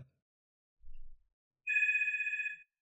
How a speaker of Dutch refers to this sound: Worden we nou gebeld? Ja.